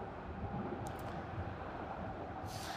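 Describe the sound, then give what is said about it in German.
Dense, steady roar of traffic on Freiburger Straße, a street with several tram and bus lines, with a low rumbling tram, echoing beneath the deck of the A12 motorway on supports; a couple of brief high-pitched squeals cut through late. “Im Süden liegt die Freiburger Straße mit mehreren Tram- und Buslinien und über uns ist das Dach oder das Autobahndach der äh, Autobahn A12 auf Stützen.”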